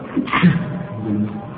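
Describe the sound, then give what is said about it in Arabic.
A single short sneeze bursts out, a sharp breathy explosion followed by a low murmur. “رحمك الله”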